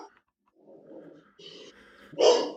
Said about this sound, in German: Jetzt bellt der große böse Hund.